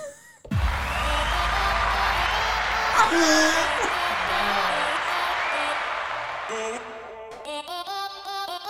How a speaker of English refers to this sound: I didn't mean to hit the applause button.